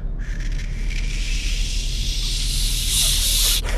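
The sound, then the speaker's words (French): A voice imitates a steady, breathy hiss, like a feedback-style blower noise without high-pitched tones heard during a recording, a continuous rushing noise that swells and brightens toward the end, fairly loud. “Euh, la période d'évaluation est arrivée à son terme et alors j'ai entendu une espèce de soufflerie façon Larsen mais sans les sons aigus euh, durant l'enregistrement.”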